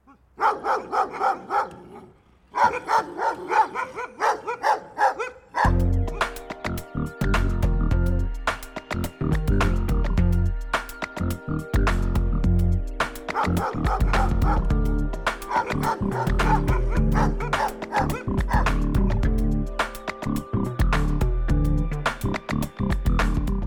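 A dog barks and yips in quick bursts, first on its own, then continuing over loud rhythmic music with a heavy bass beat that runs to the end.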